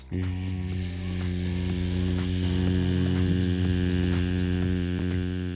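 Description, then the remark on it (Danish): A steady, droning hum held without a break for several seconds, rich in low harmonics, produced by a human voice imitating a kitchen extractor hood. “Nu havde jeg ikke nogen m så jeg blev nødt til at lave lyden selv.”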